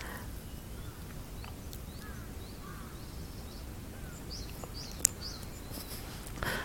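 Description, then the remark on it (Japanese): Outdoor morning ambience heard from a building's shared corridor, with scattered bird calls and chirps, including a few crow-like caws, over a steady low rumble of background noise; one brief sharp click near the end. “でも鳥さんたちは気持ちよく泣いているのでもしかしたら少しお日様出るんじゃないかななんてそんな気もしているんですが”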